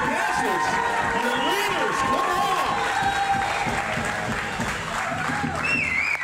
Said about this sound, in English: Y'all give it up for your pastors. Y'all can do better here. Come on.